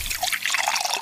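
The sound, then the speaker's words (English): A drink being poured, a steady splashing trickle of liquid filling a glass, fairly loud for about a second with no voices. “I think it's time for a nice drink, though.”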